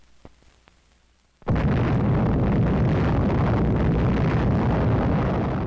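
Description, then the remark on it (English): At a desert test site in New Mexico on the morning of July 16, 1945, after a quiet stretch with a few faint clicks, an atomic bomb explodes into a sustained, deep roar that rumbles on loudly and steadily without fading, no voices present. “That's the sound of an atomic bomb exploding at a test ground less than a month before similar bombs were dropped on Hiroshima and Nagasaki.”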